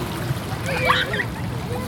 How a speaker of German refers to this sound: Hier ist es kühl und wir kühlen unsere Füße im Meerwasser.